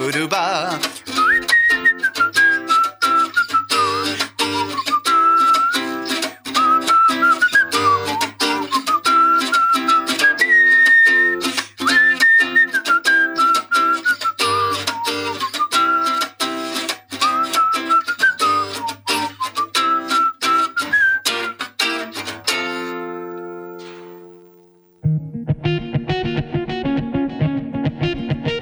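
A busy, punchy song plays with a high whistle-like melody over steady beats. It breaks off near the end, and a softer, sparser acoustic version begins, performed for a stage show built around an album. No one speaks.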